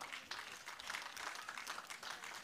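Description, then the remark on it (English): A church audience applauds the Lord as the offering basket is passed, dense overlapping claps forming a continuous crisp patter that holds at an even level throughout, with no voices standing out. “Applaud the Lord, and we will.”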